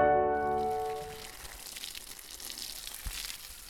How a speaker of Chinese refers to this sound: 哦，这是浇水的声音。